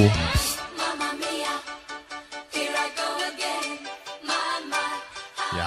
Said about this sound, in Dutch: In 1975 horen wij … met ….